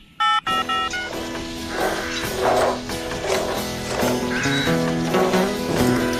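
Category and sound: signal or alarm, telephone number being dialed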